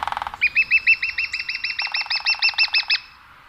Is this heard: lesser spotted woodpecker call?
yes